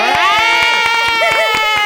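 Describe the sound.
Sharp claps ring out at a quick, steady pace beneath sustained high-pitched whooping voices, a short, loud burst of applause and cheering heard up close.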